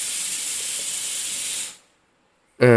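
A pressure cooker lets off steam in a loud, steady hiss that runs for under two seconds, then stops abruptly. A short silence follows before a voice begins right at the end.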